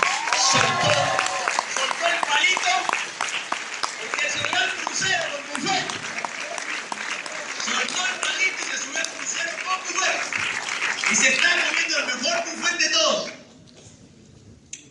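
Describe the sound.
An audience applauds loudly and steadily for about thirteen seconds, the dense clapping mixed with crowd voices and cheers, before it abruptly drops away to quiet.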